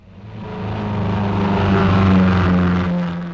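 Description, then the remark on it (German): A stolen car loaded with cash and gold bars revs up and pulls away fast, its steady rumbling drone swelling louder over a few seconds and then easing slightly near the end, with no voices. “Das war das Auto.”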